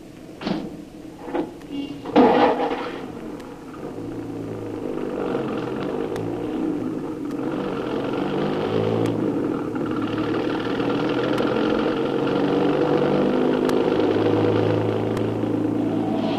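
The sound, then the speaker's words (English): A few sharp door clunks, then a taxi cab's engine rumbles into motion and drives a passenger on toward the airport, a steady low throaty drone that swells slightly as it gathers speed. “Cab! Hey, cabby! take me to the airport, driver.”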